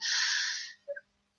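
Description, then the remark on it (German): A single sneeze: a loud, hissy burst of breath lasting most of a second, followed by a brief, faint voiced catch as it trails off. “Gesundheit.”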